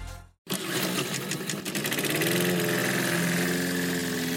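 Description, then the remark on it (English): A small petrol lawn mower engine roars to life after a brief gap and runs steadily and loudly, its buzzing drone continuous with a rough mechanical rattle. It opens the Saturday Morning Mowers Club on SEN radio. “Mowers, start your engines.”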